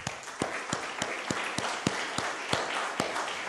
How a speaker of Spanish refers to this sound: Amén. Eso merece un aplauso. Vamos.